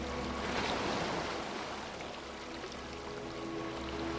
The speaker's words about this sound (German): Nimm wahr, dass es beim Zurücklaufen ein wenig deine Füße umspielt. Es erfrischt dich und du kannst deine Fußspuren im nassen Sand sehen. Genieße das Wellenspiel und das Gefühl, mit dem Wasser in Kontakt zu treten.